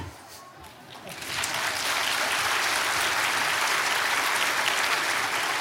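An audience breaks into applause, starting quietly and swelling after about a second into steady, dense clapping that holds loud and even until the end.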